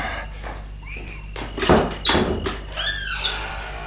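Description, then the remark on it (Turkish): A key rattles and clicks in the lock of the door of a two-storey stone house by the sea, in humid air, then the door creaks open with a few drawn-out, squeaky groans, fairly loud with no one talking. “Eh, işte, burası evimizin kapısı. Hmm, anahtarı nereye koymuştum? Evet buldum.”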